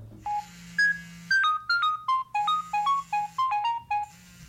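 A phone rings on an outgoing call with a melodic electronic tune, a quick run of bright synthetic notes repeating over a steady low hum, clear and alone with no one speaking.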